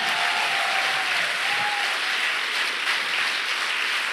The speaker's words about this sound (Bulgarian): О, там отзад би трябвало да ръкопляскаш.